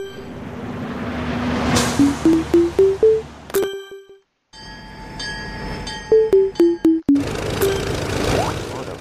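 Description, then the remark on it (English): A Skype notification ping sounds as a quick run of bright electronic blips stepping upward, then later a descending run, both clear over a busy, noisy game soundscape. “notification from Skype”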